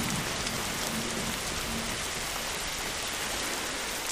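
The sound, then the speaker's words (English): Heavy rain pours down steadily in a very sudden storm with thunder under a dark sky, a dense, constant hiss of drops drumming on surfaces, with no voices and no letup across the few seconds. “It was just like it was a sunny day and then dark unnatural sky and downpouring rain and thunder.”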